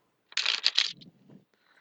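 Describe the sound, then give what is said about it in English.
A single quick riffle of playing cards, a crisp fluttering burst lasting about half a second, followed by soft low rustling as the deck settles. No one speaks. “Um, because I like to do three shuffles each time.”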